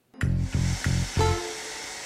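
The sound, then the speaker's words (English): A hair dryer blows, its motor roaring in four quick surges before settling into a steady whooshing hiss. No one speaks. “I do think sleeping with my blow dryer is harmful.”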